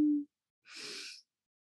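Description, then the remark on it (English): A single deep breath drawn in during a guided relaxation exercise, an airy hiss lasting about half a second, preceded by a brief low hum and followed by silence. “Take a deep breath in”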